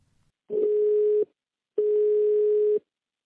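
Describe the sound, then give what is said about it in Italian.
Two steady, clear beeps of a landline ringing tone while calling a home landline in Italy, each lasting about a second with a short pause between, heard alone with no talking. “mi faccio una lista e inizio a chiamare.”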